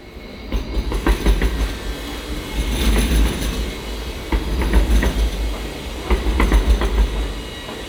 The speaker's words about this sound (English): Uh, I thought it's the tram sound because maybe after 20 years it's gonna stop and maybe they're gonna have some new machines